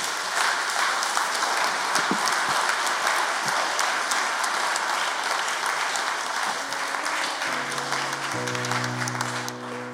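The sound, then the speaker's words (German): Steady, dense audience applause fills the whole stretch, many hands clapping loudly without pause; near the end a sustained tonal hum, like an instrument or organ chord, rises underneath. “Applaus gehört dir.”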